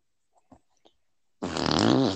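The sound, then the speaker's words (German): A loud, buzzy fart ripples out after a few soft clicks and ticks, holding steady and rising slightly in pitch for just under a second, unaccompanied by talk. “Oh, mein Kollege hier, der kann jetzt mit Furz nicht mehr reden.”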